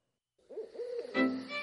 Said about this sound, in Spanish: Búho. Ave rapaz nocturna indígena de España, de color mezclado de rojo y negro, calzada de plumas, con el pico corvo, los ojos grandes y colocados en la parte anterior de la cabeza, sobre la cual tiene unas plumas alzadas que figuran orejas.